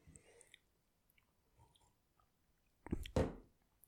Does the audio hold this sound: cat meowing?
no